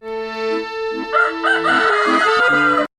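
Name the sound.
rooster crowing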